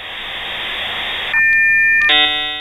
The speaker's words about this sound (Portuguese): Olha, eu vou fazer o toque de um segundo só. Atenção para o toque de um segundo.